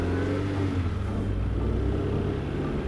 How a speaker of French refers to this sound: Le taxi se fondit dans le courant du trafic, une goutte d'or dans un océan de lumière.